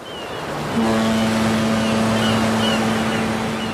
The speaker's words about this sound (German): Wir sind jetzt wieder auf der Autobahn.